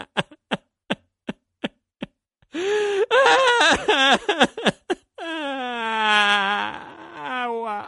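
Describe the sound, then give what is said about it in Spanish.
Six evenly spaced taps, then a voice imitating a crocodile crying: choppy, sobbing wails followed by one long, wavering, drawn-out howl, loud with no words. “El cocodrilo se quedó allí debajo, cerró los ojos y empezó a llorar.”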